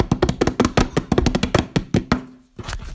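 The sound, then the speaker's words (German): A hand-tapped drumroll: a quick, slightly uneven run of sharp knocks on a hard surface for about two seconds, ending in a brief pause and a couple more taps. “Und zwar ist es Trommelwirbel.”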